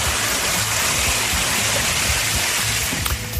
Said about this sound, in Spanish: Madre mía, lo que viene por aquí, un río, un río entrando en la huerta. Esto nos ha desbordado, ¿eh?